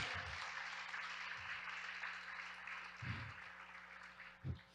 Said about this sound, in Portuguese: Isso aí, vamos lá. Aplaude aí mesmo.